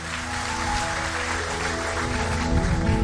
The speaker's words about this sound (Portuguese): Todo mundo. Aplauda Ele bem forte.